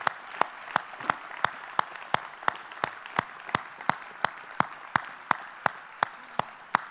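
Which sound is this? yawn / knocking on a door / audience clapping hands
audience clapping hands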